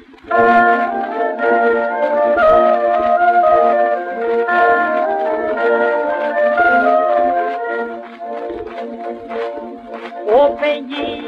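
"Les épouseux du Berry", a traditional wedding folk song from the Berry region of France, plays loudly and continuously, its melody carried on sustained, reedy tones with a steady drone-like fullness, unbroken for the whole stretch.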